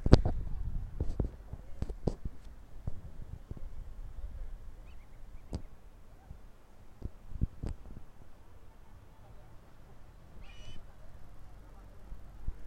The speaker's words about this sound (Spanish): me encuentro en el paradisíaco puerto de San Felipe, disfrutando de una relajante acampada. Tal vez puedan escuchar, me voy a callar un minutito para que escuchen como que los sonidos del mar, una que otra gaviotita que anda pasando por aquí